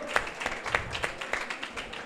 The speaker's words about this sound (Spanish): Bien enseñado, la verdad. Fantástico. Otro, aplauso, ¿no? Otro aplauso, venga, va.